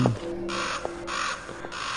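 A raven caws three times in steady succession, each call harsh, raspy and fairly loud, with a faint low hum underneath and no voices.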